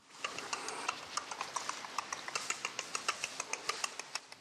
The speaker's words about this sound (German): Man kann sich äh, in dem Archiv tatsächlich auch anhören, wie ein Känguru klingt, wenn es gerade kaut.